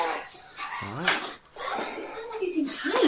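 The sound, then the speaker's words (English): A dog whimpers and yips in a run of high, wavering cries, some rising and falling in pitch, moderately loud, with a person's voice mixed in. “you didn't give birth to this demon spawn of a dog?”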